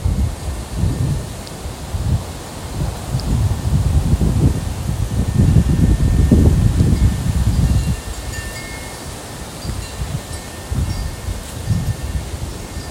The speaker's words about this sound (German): Der Wind also, den hört man und dann hört man jetzt auch noch mein Windspiel.